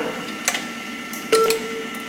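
A German speaking clock's time signal: a single steady, mid-pitched beep marking 12:21:00 sounds partway through and holds to the end, preceded by a few soft clicks over faint background hiss.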